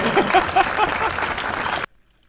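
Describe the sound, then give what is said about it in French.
A recorded applause sound effect played on the radio: a burst of applause from a crowd, dense steady clapping with a few faint cheers mixed in, loud throughout before cutting off abruptly into silence. “Bonne main d'applaudissements.”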